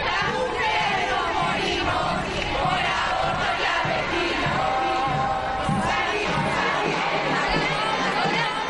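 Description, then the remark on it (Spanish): A large crowd chanting and shouting at a feminist street protest in Argentina, the 'pañuelazo' on the Day of Green Action for the right to abortion, 19 February, many voices merging into a loud, continuous roar with rising, rhythmic surges throughout. “Esto que estamos escuchando eh, se llama pañuelazo es un día señalado en el calendario feminista, es el Día de Acción Verde por el derecho al aborto en Argentina.”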